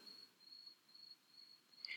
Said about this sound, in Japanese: 本格的に秋になってきましたね。なんか、まあ結構前から聞こえてるとは思うんですけど、これ録音する時も必ず これほら、スズムシ聞こえます